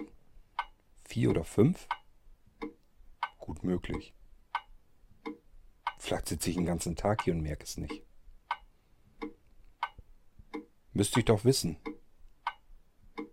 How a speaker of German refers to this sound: Was ihr da hört, ist tatsächlich eine tickende Uhr. Eine Wanduhr. Ich starre genau darauf. Ich sehe genau diese Wanduhr. Die hängt vor mir, wie Wanduhren das so tun, an der Wand. Und die Wand ist keine 1,50 Meter von mir entfernt.